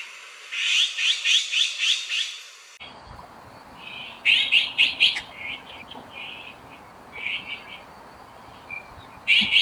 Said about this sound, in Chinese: 嗯，能听见什么？喜鹊的叫声，还有灰喜鹊，对不对？灰喜鹊是我今天要讲的内容